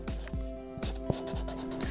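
A pen scratches and squeaks across paper in quick, repeated strokes as a cartoonist draws his cartoon cat for a fan, starting with the nose, fairly steady over two seconds, with a faint low hum underneath and no voices.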